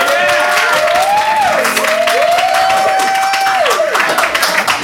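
An audience answers a show-of-hands question by applause, clapping loudly and steadily for about five seconds, dense clapping mixed with cheers and a long, wavering whistle-like whoop that rises and falls over the noise.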